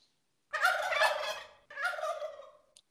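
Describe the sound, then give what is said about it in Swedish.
A turkey gobble sound effect plays loudly in two rapid, warbling bursts, the first longer than the second, with no talking. “Och den sista och dagens ka kalkon skickar vi till eh, Lars Lagerbäck”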